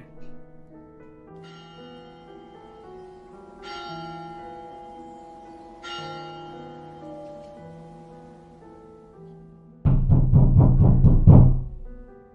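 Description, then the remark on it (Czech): A deep bell tolls slowly, striking the hour at four o'clock with about four strikes and long ringing overtones that hang in the air, then a burst of loud, rapid knocking on a house's front door cuts in near the end. “Právě když zvon odezněl, ozvalo se bouchání na domovní dveře.”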